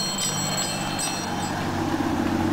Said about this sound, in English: But I think people think of the ice cream truck coming down the street as something more like music boxy, right? Some sort of music box. Mm-hmm. This is the sound that I remember of the ice cream truck.